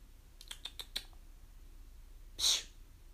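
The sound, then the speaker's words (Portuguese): A single short, high-pitched cat meow, preceded by a few soft, quick clicks like light tapping. No one speaks. “Olha o gato miando aqui.”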